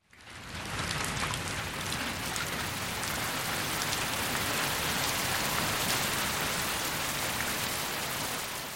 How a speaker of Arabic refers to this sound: بدأ المطر يهطل بغزارة واختلط بالدم المنساب من جسد الرجل في رحلته إلى بالوعات التصريف في الشارع